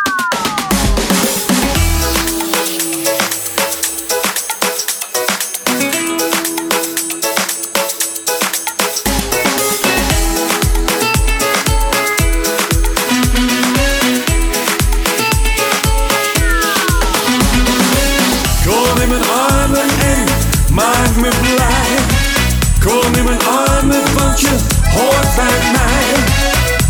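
A loud, upbeat carnival-style party disco song: a busy intro with swooping synth sweeps, then a steady thumping dance beat kicks in partway through and drives on with bright layered instrumentation.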